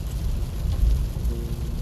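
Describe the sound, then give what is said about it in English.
Steady rain drums on a car driving in traffic, with a low rumbling engine and road noise underneath, a continuous wash of patter with no voices. “I'm saying anyway a lot because I'm driving and I'm getting having the swirl effect simply because driving in traffic when it's raining like this”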